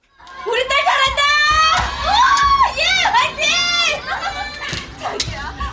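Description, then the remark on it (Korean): A lively crowd of high, excited voices cheering and shouting together from the cheering section of the stands, dense and continuous, with rising whoops and calls layered over a steady background roar. “그러다 앞쪽 응원석에서 유난히 호들갑스럽게 환호를 하고 있는 아내를 발견했다.”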